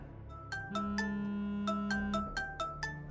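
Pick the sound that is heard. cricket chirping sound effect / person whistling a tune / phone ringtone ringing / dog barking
phone ringtone ringing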